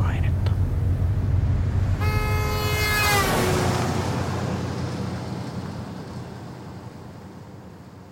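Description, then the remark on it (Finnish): A car's combustion engine, burning ancient fuel dug from the ground, rumbles low and steady throughout as it is driven, with a loud, sustained horn blast sounding for about a second partway through before the engine noise slowly fades. “On jotenkin kutkuttava tuntea, miten kun nyt kontrolloin tätä vaarallista ja alkukantaista laitetta ja miten tämän laitteen monimutkaiset mekanismit värisevät ja pyörivät polttaessaan sisällään maasta kaivettua muinaista polttoa.”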